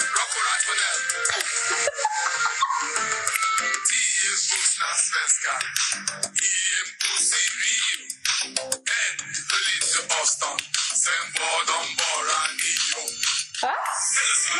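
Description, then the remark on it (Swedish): A charity song, whose earnings go to charity, plays loudly and continuously for the whole stretch, its bright, dense sound thin in the bass, with no one talking over it. “de intäkterna de får utav själva låten ska gå till eh, välgörenhet.”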